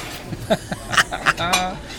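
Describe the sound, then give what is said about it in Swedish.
A wine glass and a beer glass clink together in a toast, several bright, ringing taps in quick succession over about a second, with faint background murmur and rustling around them. “skål innan dess då. Du får dricka upp ditt eh, fina vin och så dricker jag upp min öl.”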